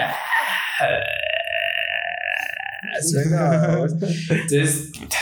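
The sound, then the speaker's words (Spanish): A strained, sustained cry layered over a rough, guttural retching noise, like someone vomiting and screaming at once, lasting about two seconds before people start talking. “Entonces, yo cuando él me lo enseñó, me, sí me dio un chingo de miedo porque suena como que alguien vomitando y gritando al mismo tiempo.”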